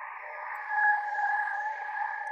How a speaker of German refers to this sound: Noch so eine Sinnestäuschung, denn was hier grummelt und zirpt, das ist das All. Plasmawellen, um genau zu sein, von der NASA zum Klingen gebracht